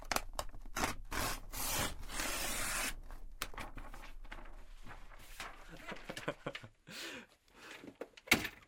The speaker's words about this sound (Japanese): ちょっとまだな8月のままなんでちょっとこれも一個ねちょっとカレンダーめくる音もちょっと一緒に撮っときましょうちょっとこれ立ってもいいかなじゃカレンダーめくります